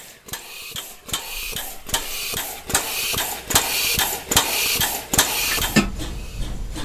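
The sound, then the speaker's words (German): A steam locomotive's air pump clacks in a steady mechanical rhythm, sharp knocks repeating about every half second over a constant hiss of steam, fairly loud with no voices. “Und was wir hier jetzt gerade hören, dieses Geklacker? Das ist die Luftpumpe.”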